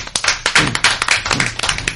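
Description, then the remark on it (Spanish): A small group claps for a couple of seconds, a quick, uneven patter of overlapping sharp hand claps at a steady moderate loudness, with no one speaking. “Ni un mini aplauso.”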